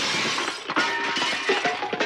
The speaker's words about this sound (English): Oh, that's a UFO crashing right there.